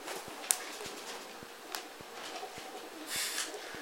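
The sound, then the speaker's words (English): Soft cooing from a group of about 15 doves living on a windowsill drifts in from outside, low and steady under faint background noise, with a few sharp clicks and a brief rustle of wings or movement. “I think he wants to explore the doves.”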